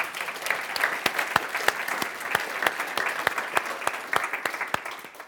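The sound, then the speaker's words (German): Steady applause from an audience for the choir after its performance of O Holy Night, many hands clapping in a dense, continuous patter with sharper individual claps standing out, holding at an even level throughout without any voices. “Lass uns denen nochmal einen richtig kräftigen Applaus geben.”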